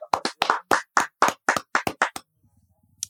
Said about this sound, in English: Yeah, clap it up for Roquan. Yeah.